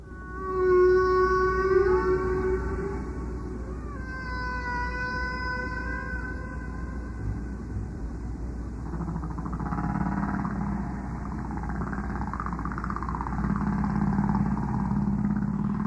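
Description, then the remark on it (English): Eerie, drawn-out tonal moans and rising wails from a humpback whale, layered and echoing over a steady low rumble, with sustained harmonic cries that bend and glide in pitch; a tape recording from a Navy sonar engineer's collection. “He still remembers the day that this engineer hands him a pair of headphones, threads this tape onto a tape machine, and calls out, I think it's a humpback whale.”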